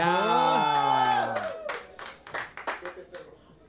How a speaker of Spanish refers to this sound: Un fuerte aplauso.